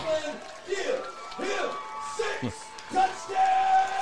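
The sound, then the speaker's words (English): A stadium crowd cheers after Columbia scores a touchdown against the Stratford Spartans in a football game, a steady, dense roar with individual shouts and whoops rising and falling throughout, fairly loud and unbroken for the whole stretch. “as the crowd goes crazy.”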